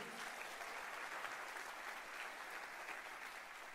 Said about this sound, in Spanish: ¿Qué tal si nos damos un fuerte aplauso al Espíritu Santo en esta tarde?